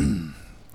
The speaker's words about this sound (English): As I cough into the microphone, that's great. Real classy, you know.